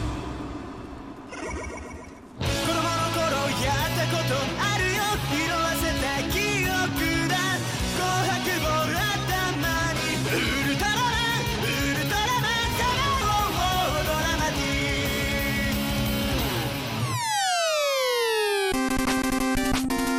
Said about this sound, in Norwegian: Og den observante lytter ville kanskje ha lagt merke til at akkurat denne låta har vi spilt eh, flere ganger før eh, i Kontroll Alt Elite, og det er jo så klart for at hver gang vi har et nytt medlem i studio, så spiller vi